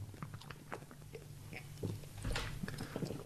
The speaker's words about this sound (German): Das war geil, wie du das gerade getrunken hast. Das hörte sich gut an. das hört sich an, da kriegt man direkt Durst.